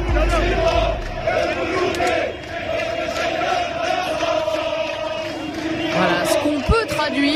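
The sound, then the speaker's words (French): A large crowd shouts together in a loud, sustained roar of many voices, with rhythmic collective chanting at a peaceful street protest in Algeria against a fifth term for Bouteflika, continuous throughout. “c'est un slogan qui résonne de l'autre côté côté de la Méditerranée dans les rues algériennes.”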